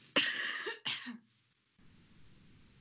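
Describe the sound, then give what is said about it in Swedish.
A woman gives two harsh coughs in quick succession, the first longer and the second shorter, followed by a brief breathy exhale and then quiet room noise. “Förlåt, jag måste bara hosta och andas lite.”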